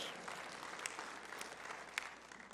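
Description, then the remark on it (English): An audience applauds the news that s'mores, who had been lost, was reunited with his family, with a steady wash of many hands clapping at once and a few sharper, louder claps standing out now and then over the dense, moderate-level patter. “Now, finding s'mores brought some passion and some amens and some claps and applause, imagine locating a human who has been lost.”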